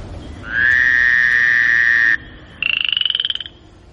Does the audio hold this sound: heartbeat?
no